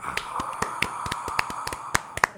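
A scattered round of applause from a few hands: sharp, irregular claps, about a dozen over a couple of seconds, sounding against a steady humming tone with no voices.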